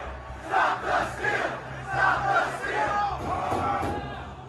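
A large crowd of rioters shouts and yells in overlapping waves as they storm the US Capitol, a dense roar of many voices rising and falling, loud and chaotic, with a low rumble underneath.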